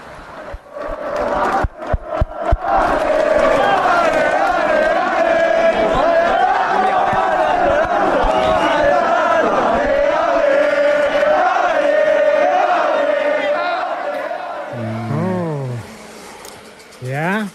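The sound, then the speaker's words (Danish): Italian football fans in a stadium, recorded on a Wednesday evening, chant together in a loud, sustained, tuneful roar, preceded by a few sharp claps, with a wavering, sliding cry rising near the end. “den har faktisk noget med, med fodbold at gøre”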